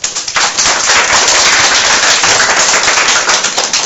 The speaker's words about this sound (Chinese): 好，那我们掌声有请主讲人。